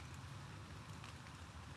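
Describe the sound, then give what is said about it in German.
Rain falls outdoors as a steady, even hiss with a low rumbling undertone, continuous and fairly quiet throughout, with no voices. “Es regnet hier einfach.”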